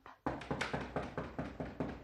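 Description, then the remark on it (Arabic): A quick, steady series of about nine loud, insistent knocks on an apartment door, with no voices. “اللي حصل يوميها كنت في الشقه اللي مأجرها لي العمده لقيت الباب بيخبط”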